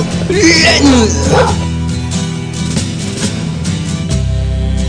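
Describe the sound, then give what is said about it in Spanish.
A dog gives a few high, whining yelps and barks in the first second or so, then falls quiet while a steady, droning background sound carries on. “¡Sáquese! ¡Sáquese, perro!”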